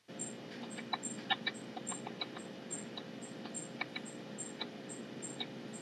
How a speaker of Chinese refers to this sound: 所以是不是所有的植物都会在感受到压力的时候发出声音？